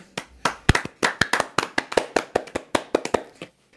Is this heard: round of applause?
yes